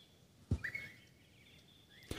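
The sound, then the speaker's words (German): A single short, rising bird chirp sounds faintly, bracketed by soft knocks before and after, with a thin whistle-like tone trailing near the end in a quiet setting. “ja, der Vogel braucht ein bisschen, das ist mm.”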